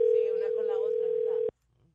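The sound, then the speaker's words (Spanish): A steady, single-pitched telephone ringback tone hums for about a second and a half, then cuts off abruptly. Voices talk over the tone throughout, and near-silence follows. “Ah, sí, it's ringing.”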